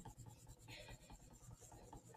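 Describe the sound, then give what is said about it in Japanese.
Steady rubbing and scraping of a Plus stick-type scissor tool across a sticker, a continuous textured rasp with slight rhythmic strokes and no talking. “プラスさんの、あの、なんスティックタイプのハサミで、こすってます、いつも。”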